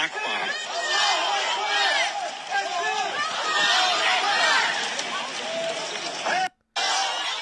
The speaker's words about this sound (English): All of them chanting Allah Akbar. This is, I, it's this, they're yelling Allah